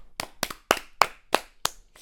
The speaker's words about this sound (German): da kann man schon mal, da kann man schon mal klatschen.